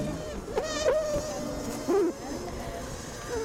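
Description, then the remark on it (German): Dense, steady buzzing of many Asian honeybees inside a hive in Vietnam, broken by a few louder, wavering bursts of alarm buzzing that swell and fade over a few seconds. The bees make the alarm with frantic wing beats and pattering feet to warn others of enemies. “Zum Schluss zu asiatischen Honigbienen, die ihre Artgenossen vor Feinden warnen mit einem lauten Brummen.”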